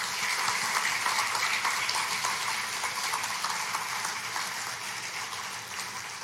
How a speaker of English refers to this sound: Would you just give them a round of applause?